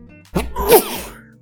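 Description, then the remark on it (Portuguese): A single sharp sneeze bursts out with a quick breathy intake and a loud explosive release, fading within about a second; no talking is heard. “Ai, desculpa. Saúde.”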